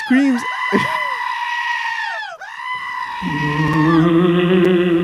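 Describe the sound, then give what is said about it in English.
A person imitates a screaming goat with loud, strained, wavering bleats, one long cry that breaks briefly and then continues rougher and lower, with no other sounds. “He screams just like that goat, man.”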